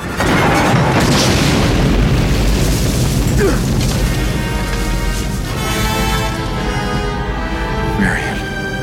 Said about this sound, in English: when the truck explodes, we hear a desperate, horrified minor key version of Marion's theme